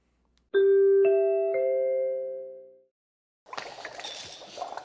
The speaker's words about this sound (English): Okay, let's get on to Saturday night's main event. Let's hear those NBC chimes.